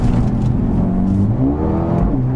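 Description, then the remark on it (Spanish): A Mercedes-AMG A35 hatchback with 306 hp and all-wheel drive accelerates loudly, catching a little gravel so the car twists slightly, a steady throaty drone whose pitch climbs as the revs rise partway through, with no voices. “Ahí he pillado un poquito de gravilla y habéis podido ver cómo acelerando el coche se ha torcido, pero vamos, lo hemos podido controlar sin ningún tipo de problema.”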